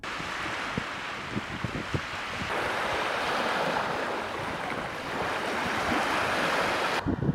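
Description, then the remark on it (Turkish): Sea waves wash steadily onto a shore in a continuous, fairly loud roar, with gusts of wind buffeting the microphone; no one speaks. A beach in the Manavgat and Serik districts of Antalya, Turkey, where the sea receded 4 to 20 metres, filmed on a mobile phone. “Antalya'nın Manavgat ve Serik ilçelerinde denizlerde 4 ila 20 metre arası çekilme yaşandı.”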